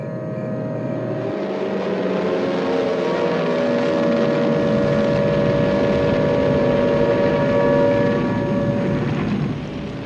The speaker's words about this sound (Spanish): En la oscuridad del Océano Pacífico, 282 bombarderos B-29 se acercan a Tokio.